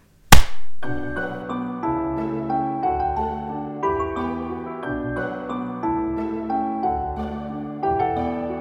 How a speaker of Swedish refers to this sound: klipper, klippar vi, då klappar vi. Ett, två, tre.